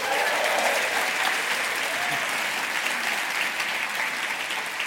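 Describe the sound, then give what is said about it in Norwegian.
Steady audience applause in Trondheim for chief editor Trine Eilertsen, a dense wash of many hands clapping at a constant loud level for the full few seconds, with no voices standing out. “Ja, hei så kan vi jo tillate oss en applaus til da, for eh, sjefredaktør Trine Eilertsen, som har eh,”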